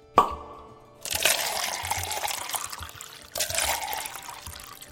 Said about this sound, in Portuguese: Esse lugar chove pra caramba, né?